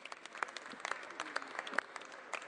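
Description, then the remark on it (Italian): Steady applause from a large group fills an Italian parliamentary chamber, thanking doctors, nurses and healthcare staff on the second anniversary of the start of the pandemic; dense overlapping claps with a few sharper individual hits, moderately loud and continuous for the whole stretch. “Allo stesso tempo vogliamo applaudire e ringraziare i medici, gli infermieri, il personale sanitario, anche quelli che sono stati richiamati dalla pensione e anche quelli che a titolo volontario hanno scelto di scendere in campo”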